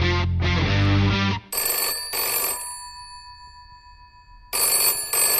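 A telephone rings on an outgoing call: after a brief low tone, bright bell-like rings come in two quick bursts, fall silent for a couple of seconds, then start again.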